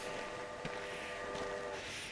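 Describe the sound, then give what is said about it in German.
A train rumbles steadily along the rails on an 800-kilometre journey to Crimea, a continuous low, dense rolling noise with faint tonal whine and a couple of soft clunks, without voices. “Während sie 800 Kilometer zur Krim rumpeln, sehen sie einen stetigen Strom von Feuerwehr und Krankenwagen nordwärts fahren.”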